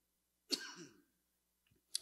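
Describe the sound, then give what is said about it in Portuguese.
A sharp cough from a person with a lingering cough, who has tested negative for Covid, bursts out and trails off raggedly. After a short pause another cough starts and is cut off at the end. No one speaks. “Mas estou numa tosse desde aquele dia.”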